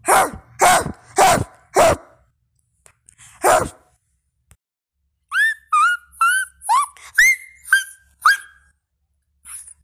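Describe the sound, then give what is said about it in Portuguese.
A child's voice imitates his own pet dog barking: four quick loud woofs, one more after a pause, then a string of high, squeaky yelps and whines, clear with no talking. “Eu, e o meu animal favorito é o meu cachorro.”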